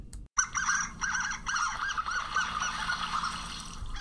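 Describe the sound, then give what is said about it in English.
A flock of interacting harlequin ducks giving rapid, high-pitched squeaky calls, overlapping and chattering continuously over a soft background of water, with no talking. “so while interacting harlequin ducks make distinctly unduck like squeaks”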